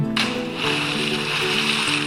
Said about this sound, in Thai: และเช้าวันรุ่งขึ้นในขณะที่กำลังขุดดินเพื่อปลูกผักริมแม่น้ำเธอได้ยินเสียงอะไรบางอย่าง ตกน้ำเสียงดัง